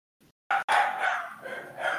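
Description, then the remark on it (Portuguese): The speaker's female dogs barking: one sharp bark, a brief pause, then a continuous run of loud, overlapping barks and yelps that rises and falls for a couple of seconds. No one speaks. “Olha, minhas cachorras se amam.”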